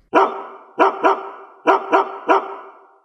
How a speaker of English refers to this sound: Hey, do you hear that? What is that? It's the bark heard round the world.